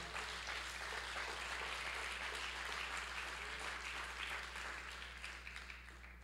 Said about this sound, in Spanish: Dale el aplauso al Señor si se lo vas a dar.